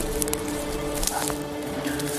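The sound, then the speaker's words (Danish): Light rain beginning to fall outdoors in scrubland: a steady soft hiss with a few scattered, sharper drop-like taps breaking through at irregular moments, moderately quiet and with no voices. “Det begynder at blive lidt koldt, og nu begynder det at regne lidt meget.”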